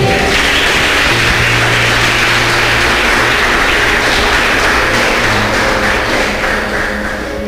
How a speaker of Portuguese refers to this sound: Se você crê nisso, aplaude o nome do Senhor.